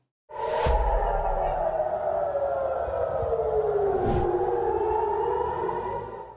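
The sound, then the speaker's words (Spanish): A loud air raid warning siren wails continuously in Jerusalem, Israel, on Saturday 7 October, set off by a surprise Hamas rocket attack from the Gaza Strip, its tone sliding slowly downward over several seconds, with a sharp thud or impact partway through and no one speaking. “Las sirenas suenan desde muy temprano.”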